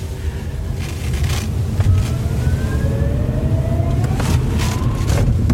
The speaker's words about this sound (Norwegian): Men det, det som er med elbiler, er vel at det er en vanvittig akselerasjon? Det er det. Får vi prøve? Ja, det kan vi.